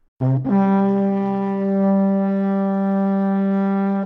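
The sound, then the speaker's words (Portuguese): A loud intro jingle made of one sustained, brassy horn-like chord: a short stab, a tiny break, then a steady held tone lasting about four seconds, with no voices. “Chama a vinheta.”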